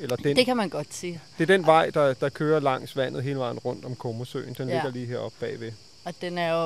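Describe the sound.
A steady high-pitched insect drone of cicadas runs continuously in the background while a man talks in the foreground throughout.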